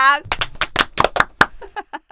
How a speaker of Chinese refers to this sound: 今天是二零二三年的一月五号，也是我们二五得十的新春第一次录音，我们自己给自己鼓掌。